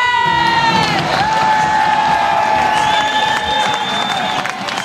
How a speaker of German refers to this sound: Überragend, Leute, überragend. Wirklich, kommt alle in den PSD-Fanpark. Das ist Spitzenstimmung. Jubel!